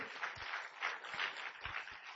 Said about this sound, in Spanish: Y un aplauso para Dios por esa palabra.